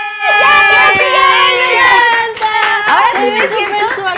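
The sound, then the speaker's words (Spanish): Scattered hand clapping from a small group at a pajama party, irregular rather than rhythmic, mixed with a loud, high, wavering tonal sound that carries through the whole clip. “¡Aplausos”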